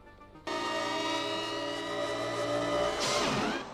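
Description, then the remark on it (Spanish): Futuristic light cycle engines from a film's action game scenes roar in with a loud, sustained electronic buzzing whine that holds steady, then swoops sharply in pitch near the end as if a bike races past. “Durante su estancia en este mundo virtual, se enfrentará a variopintas situaciones en diversos juegos de acción, como las célebres motos de luz que acabarían convirtiéndose en el emblema de la película.”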